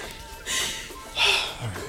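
A person choking and gasping for breath: two harsh, breathy gasps about a second apart, followed by a short low rasp.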